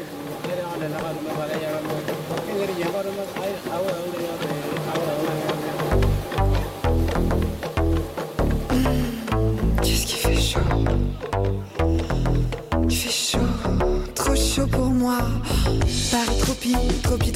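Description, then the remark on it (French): A pop song by a band with a singing voice, played on the radio, opening with a softer melodic intro before punchy drums and bass kick in partway through, playing loud and steady to the end. “On va tout de suite sur Radio 162 écouter un, groupe qui, que j'aime beaucoup d'ailleurs.”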